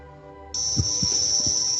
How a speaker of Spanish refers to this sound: no hay interferencia, no se asusten, me acompañan unos grillos que están muy cerca, quizás se escuchan.